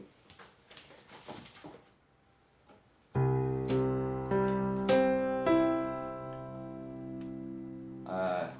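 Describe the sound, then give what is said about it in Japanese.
A rich sustained chord of the harmonic overtones of a low C sounded all together, including C three octaves up and the 9th to 12th harmonics D, E, F sharp and G, struck in several successive pulses and ringing on, preceded by brief faint rustling and followed by a short noisy burst. “えー、第10倍音がミそして第11倍音がファのシャープ、えー、第 ,12、えー、第12倍音がソの、えー、音ですねだから全部同時に鳴らすとこんな感じです”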